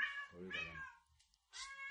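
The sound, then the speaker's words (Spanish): A male kitten meows twice, the first call long and wavering, the second starting after a short pause; faint background noise fills the gap between them. “¿Cómo se llama la gatita? Gatito, se llama Carpino. Es gatito.”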